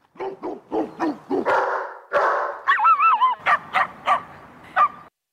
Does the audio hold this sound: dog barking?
yes